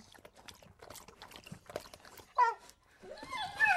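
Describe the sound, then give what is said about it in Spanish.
A dog laps milk from a bowl with quick, wet, irregular licks, followed near the end by a few short, whiny, voice-like sounds. “Vamos, Nana, perrita. Te he puesto leche en el tazón. Tómala.”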